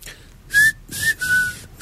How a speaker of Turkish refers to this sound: Pencereyi kapat ya dışarıdan bir ıslık geliyor. Ne çalıyorum bak?